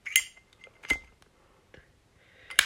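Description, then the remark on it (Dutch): A metallic Supreme Zippo lighter lid clinks open, followed by a soft scrape and flick as it lights a joint, then another sharp metallic clack as it snaps shut, fairly loud. “Dat was mijn mooie Supreme Zippo die eh, bij Joko aanstak.”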